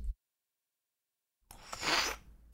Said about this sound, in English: I was trying to make a joke and make make a sound of me drinking alcohol, and instead of taking the shot, I sipped the top of this like an idiot. So I just I just like huffed some vodka up my nose.